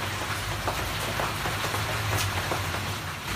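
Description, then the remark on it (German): Steady rain drums on a taut tarp overhead, a dense patter with scattered sharper drops and a low rumble underneath, continuing without pause and with no voices. “Es regnet und auf der Plane prasselt es.”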